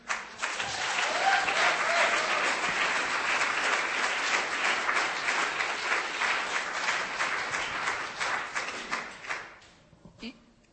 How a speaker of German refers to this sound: Ich glaube, die haben mal einen richtigen Applaus verdient, oder?